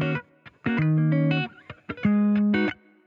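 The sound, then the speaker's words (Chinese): A fire truck siren rendered as buzzy, distorted electronic tones: short stabs followed by two long held blasts that shift between steady pitches, loud and with no talking. “那我们一样赶快话不多说，因为听到这个消防车的声音，我们就赶快进入美股指数吧。”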